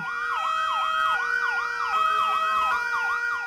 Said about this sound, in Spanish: El sonido de la alarma activó el plan de evacuación y de inmediato se escucharon las sirenas de bomberos, ambulancias y otras unidades de emergencias.